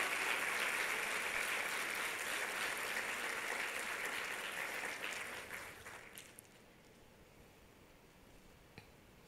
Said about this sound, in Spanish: ¿No le dan un aplauso al Señor? Gracias, Señor.